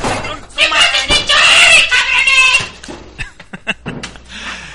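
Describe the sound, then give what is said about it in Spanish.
A loud, piercing scream with a harsh, strained edge rises and sustains for about two seconds, followed by a few sharp clattering hits and fainter scattered sounds. “ya nos fastidiábamos y ahora sí que, perdón, pero es que ese grito desgarrador era la neta del planeta.”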